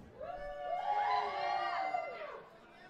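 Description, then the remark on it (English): A lively bar audience at a live recording whoops and cheers for a few seconds, several voices rising and falling together over steady, loud background chatter. “We are live at the Surly Goats. Motherfuckers be loud.”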